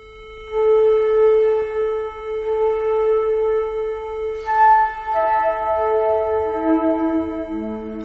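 Long, sustained tones ring out with rich, steady overtones inside the red-granite-lined King's Chamber of the Great Pyramid, beneath nine 400-ton slabs, swelling and blending, then stepping down to lower pitches near the end. No one speaks.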